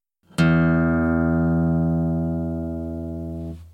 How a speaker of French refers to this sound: Exemple, si je fais sonner ma corde de mi grave à vide, j'obtiens ceci.